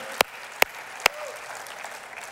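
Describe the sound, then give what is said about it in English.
Brief applause from a church audience celebrating its first Spanish service at the state fair: three sharp, loud claps spaced roughly half a second apart, then fading into a faint, steady hiss with no voices. “Can we just clap and celebrate?”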